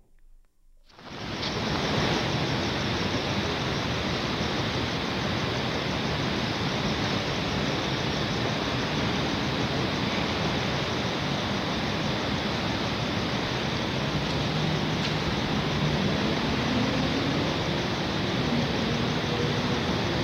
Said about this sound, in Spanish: Esto es una postal sonora. A estos son, si no me equivoco, grillos y lluvia al sur de la Ciudad de México.